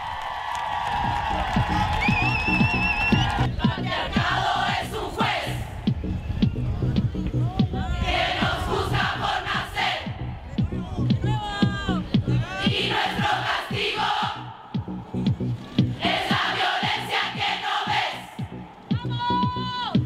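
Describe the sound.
A large crowd chants loudly in unison, voices rising together in repeated rhythmic phrases over a steady pulse of claps or stomps, the sound dense throughout.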